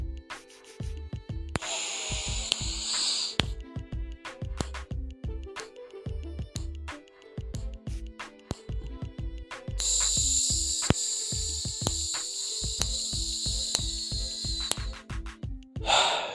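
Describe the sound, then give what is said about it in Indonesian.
Sharp finger snaps tick along at a steady, counted pace, counting a breathing exercise of inhaling for 3, holding for 5 and exhaling for 6, while loud breaths are drawn in and slowly blown out between them. No one speaks. “Tapi ini di sini biar aku mencontohkannya aku pakai jentikan jariku aja ya.”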